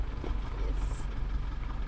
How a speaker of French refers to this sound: Parce qu'en plus, les plaquettes de frein, je sais pas si elles ont hmm. été révisées euh, avant qu'on parte, ce bruit est très agréable. C'est tellement agréable, vous entendez